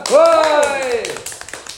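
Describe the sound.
A drawn-out, high voiced call gives way to a brief patter of audience applause, a scattering of sharp, uneven claps that stays moderately loud and ends after about half a second.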